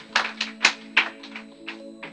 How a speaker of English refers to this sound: Can you give them a round of applause this morning?